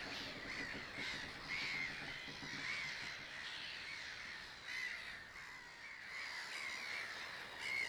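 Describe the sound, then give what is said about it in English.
A dense, unbroken chorus of squawking seabirds, harsh overlapping calls repeating every second or so at a steady, moderately loud level, with no voices. “Despite the never ending chorus of seabirds and flying lizard birds, the man slept a full day.”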